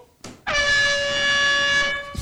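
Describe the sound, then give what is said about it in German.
A single loud, sustained air horn blast, triggered by pressing a button to signal a technical time-out, lasting about a second and a half, bright and brassy with a steady tone, preceded and followed by brief faint background noise. “Das heißt, äh, dann kommt die Tröte.”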